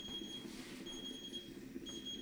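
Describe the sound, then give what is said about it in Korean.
A kitchen timer rings with a steady high-pitched electronic beeping tone, signalling that ten minutes have passed. It pauses briefly and resumes over a busy low sizzling and clattering background of cooking. “이 소리는 10분이 지났다는 소리죠.”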